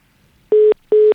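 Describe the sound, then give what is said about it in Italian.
Two short, loud electronic telephone beeps at the same steady pitch, evenly spaced with a brief pause between them, as a caller is put on hold, heard alone with no talking. “Eh, ti posso mettere in attesa un secondo per cortesia?”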